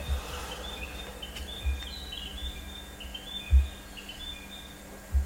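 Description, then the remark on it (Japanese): Faint birds chirping, thin high calls repeating through an outdoor ambience, with a few low soft thumps and no voices. “ちょっと鳥の音をね、聞いていただければと思います。”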